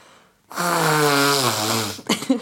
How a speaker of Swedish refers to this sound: Nej men snälla. Snyter du så högt? Nej, men nu har jag ändå tagit bort näsan från mikrofonen. det var jättejättehögt.